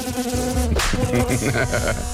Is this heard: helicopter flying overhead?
no